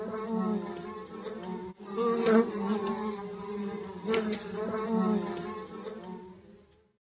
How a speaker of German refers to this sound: Es ist sowieso Zeit, die Schlafzimmerfenster zu öffnen, damit die armen Wespen ins Freie fliegen können.